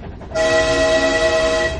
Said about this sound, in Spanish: El lugar del mundo donde primero se pronunciaron esas palabras y donde primero echó a caminar una locomotora de tren ferrocarril que está amenazado por la emergencia climática.